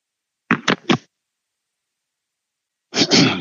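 Someone sips and swallows water: a quick cluster of three short wet gulps, a pause of silence, then a longer, breathy exhale-like sound. No talking.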